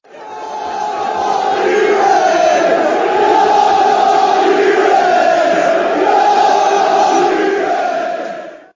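A large crowd of football fans chants in unison without any instruments, a loud sustained a cappella song sung just before the start of the first and second halves of a match, with swelling melodic lines holding steady for the full stretch before fading at the end.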